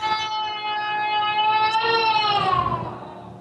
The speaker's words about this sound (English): See, he doesn't like the fact that I'm on a raid. Sorry, that's my child crying.